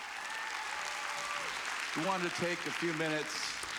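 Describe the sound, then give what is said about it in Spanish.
An audience applauds in a steady, dense wash of clapping for the whole stretch, while a voice calls out several short, pitched shouts over it partway through. “Me preguntaba si hubieran aplaudido así, si me convirtiera en el rey o algo así.”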